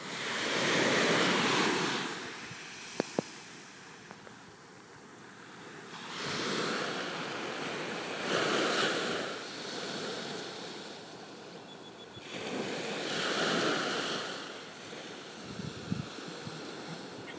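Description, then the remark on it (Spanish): Ocean waves break on the shore in slow, repeating surges, each swelling into a broad rushing wash and then receding, roughly every six seconds, with no voices present. “Observa el mar y observa a lo lejos.”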